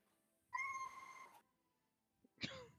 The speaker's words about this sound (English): That was a cat. that was perfect timing.